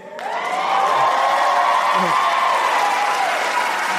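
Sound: audience clapping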